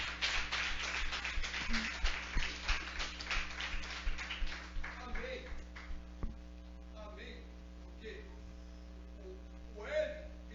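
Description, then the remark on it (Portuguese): A crowd claps for the Lord during a prayer, rapidly and loudly for about five seconds, then the clapping thins out and fades under a steady electrical hum, with faint voices in the background. “Aplauda ao Senhor.”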